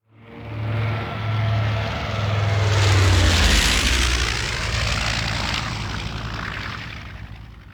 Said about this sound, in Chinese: 日军第一波打击编队飞临珍珠港。那么，对于日本的第一波打击编队来说呢，它一共包含的是一百八十三架各类战机